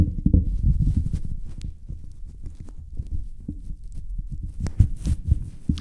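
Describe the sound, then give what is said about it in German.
Muffled low rumbling and irregular thumps as a windscreen is fitted over a microphone, with a few brief scratchy rustles and no voices. “Aber ich sag mal so, wenn man jetzt wirklich sagt, okay, man möchte den Windschutz drauf haben, dann macht man ihn halt wieder rauf. Jetzt rumpelt es ein bisschen.”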